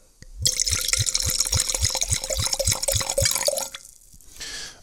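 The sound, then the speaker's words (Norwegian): Don Catelado wine from the heel of southern Italy pours steadily into a glass for about three seconds with a rhythmic, low glugging from the bottle, roughly ten even pulses under a bright splashing hiss, then it stops abruptly. “Og de lager litt svulstige viner, så nå skal vi helle i glasset.”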